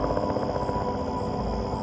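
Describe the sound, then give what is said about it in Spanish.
A helicopter drones steadily, a dense low rumble with a faint rhythmic flutter running throughout at an even, moderate loudness, with no voices. “Ahí está ese helicóptero de nuevo.”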